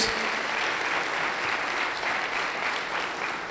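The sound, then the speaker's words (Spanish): Loud, sustained audience applause given to the Lord during a church service, a dense steady wash of many hands clapping together with no pauses, filling the whole few seconds at an even level. “Denle un fuerte aplauso al Señor en esta hora, en el nombre de Jesús.”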